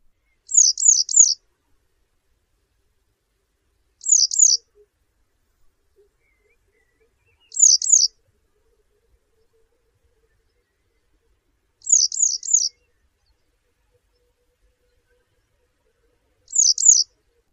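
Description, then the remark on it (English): Yellow wagtail calls: brief, high, thin bursts of two or three quick notes, repeated five times at steady intervals of about four seconds, clear against an otherwise silent background. “The song given from a perch is a repetition of the call, interspersed with more warbling notes, and is also given during brief fluttering display flights.”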